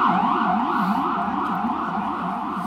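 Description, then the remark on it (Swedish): Fire engine and ambulance sirens wail loudly and continuously as they pass, their pitch sweeping up and down in a fast, repeating warble. The sound stays steady, fading only slightly toward the end, with no voices. “Och kommer brand ambulanser.”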